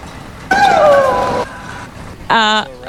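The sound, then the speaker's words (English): Tennis player Azarenka's loud, high-pitched scream while hitting: a drawn-out shriek of about a second, sliding slightly down in pitch, then a shorter, sharper cry a moment later, with no talking. “Identify this tennis player. Okay. Sarapova. Wait. Who's screaming?”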